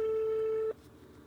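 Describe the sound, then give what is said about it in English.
A steady electronic phone ringback tone hums for about three-quarters of a second, then cuts off abruptly, leaving faint line noise. No one speaks. “So I called David and asked him to take me there.”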